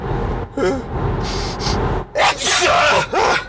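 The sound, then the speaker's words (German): A sharp gasping intake of breath leads into a loud, breathy sneeze, followed by another short burst of breath, over a low background hum. “Gesundheit.”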